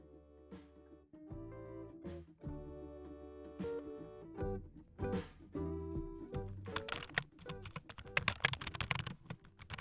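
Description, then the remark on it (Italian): Typing on a computer keyboard: bursts of quick, irregular key clicks that grow busier toward the end, layered over a steady musical backdrop. “Sto lavorando al computer.”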